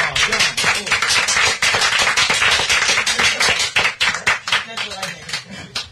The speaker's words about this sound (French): Donc le vainqueur est. Applaudissements quand même.